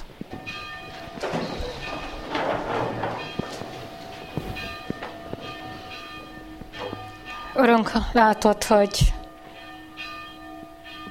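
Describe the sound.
Church bells ring steadily during a church memorial service, their sustained, overlapping tones filling the space, while a man begins speaking over them toward the end.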